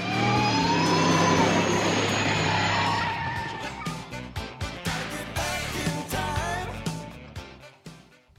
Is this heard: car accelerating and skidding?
yes